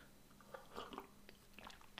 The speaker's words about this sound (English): I just took a sip of coffee there.